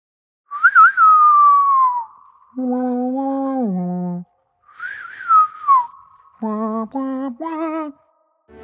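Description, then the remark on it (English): A whistled western showdown sting: two rising-and-falling whistled phrases, each answered by a lower, hummed, horn-like vocal note, ending in three short punchy notes. “You almost hear that sting that plays in westerns before the other guy shows up for the duel.”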